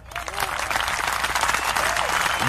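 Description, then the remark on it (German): Steady applause from a small group, dense clapping filling the whole moment at a fairly loud level, with a few faint voices mixed underneath. “Der erste Gast, der Applaus bekommt, direkt am Anfang schon.”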